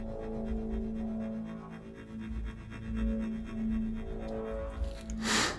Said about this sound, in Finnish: viimeiset musteet kynästä paperille.